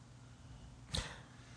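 A single quick, sharp sniff, a short breathy rush of air through the nose that fades fast, against a quiet background with no talking.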